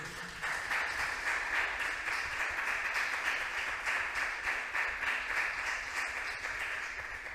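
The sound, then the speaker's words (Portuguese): A church audience applauds the Lord steadily, a dense, continuous wash of many hands clapping at an even level for several seconds with no voices standing out. “Aplauda ao Senhor.”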